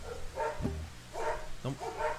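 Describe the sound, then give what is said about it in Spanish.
Several small guard dogs bark in quick succession, sharp yelping barks repeating in a loose rhythm, with noisy ambience underneath. “Eh, tenemos también, aparte de la familia, los guardianes, los perritos guardianes que, hoy nos están ahuyentando a las malas vibras de aquí. Por eso, si ladran, perdónenlos, están de nuestro lado.”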